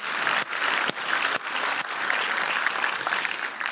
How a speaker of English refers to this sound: So, if you would agree with me, would you just applaud your senior pastor and his wife?